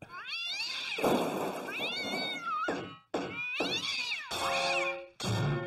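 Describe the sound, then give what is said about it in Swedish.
A cat meows loudly and insistently to be let out, a series of long, drawn-out wails, repeated about five times with short pauses between, no talking. “Nu måste jag gå och släppa ut en katthare här ett ögonblick annars kommer hela kåken att rasa.”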